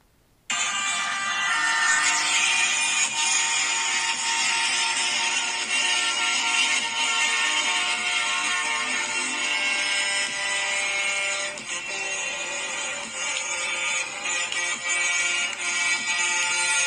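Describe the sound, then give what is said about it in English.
A convoy of truckers from Canada honking, many horns blaring at once in a dense, continuous wall of brassy, overlapping tones that holds steady at high volume, with a brief dip partway through and no talking. “What you are listening to, my fellow Americans, is a convoy of truckers from Canada who don't really like the policies of Mr.”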